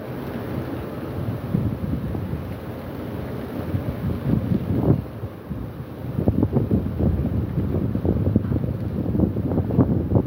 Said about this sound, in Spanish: la tecnológico va súper fuerte, muy fuerte. Muy, muy fuerte, muy fuerte la tormenta también.